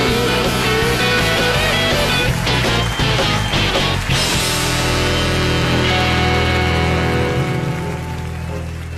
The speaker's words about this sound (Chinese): 女士们、先生们，Ladies and Gentlemen，现在是大明脱口秀时间，掌声欢迎我们敬爱的大明！